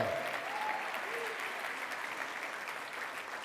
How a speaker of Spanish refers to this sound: Por eso es que el salmista dice, tu vara y tu callado, dele palmas al Señor, hermano.